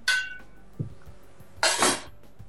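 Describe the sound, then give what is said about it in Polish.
A small metal pot-lid indicator is lifted off a pot with two bright metallic clinks about one and a half seconds apart, separated by a soft dull knock. “Aż do skutku, jak przyjdę i wyłączę i zdejmę tą gosposię.”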